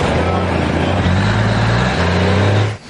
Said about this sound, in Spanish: Los camiones y tropas del dragón se acercan al orfanato.